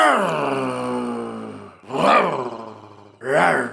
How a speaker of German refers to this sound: Äh, äh, da, da steht ein Tiger im Studio! Ah, oh, rette sich, wer kann!